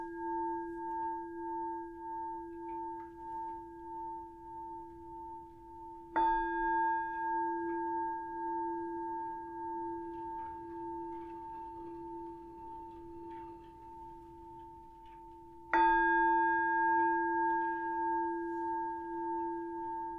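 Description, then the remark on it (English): A meditation bell rings out with long, shimmering sustained tones; it is already sounding at the start and is struck again twice, each strike blooming and fading slowly, without speech. “And I'm going to start with three sounds of the bell and the usual settling in introduction.”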